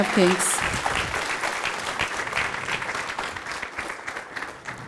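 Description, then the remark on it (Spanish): A standing audience applauds the King of Kings steadily, a dense wash of clapping that stays loud throughout, with a brief voice at the very start before the applause takes over. “Déle ese fuerte aplauso al Rey de Reyes.”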